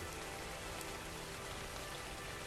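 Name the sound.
rain falling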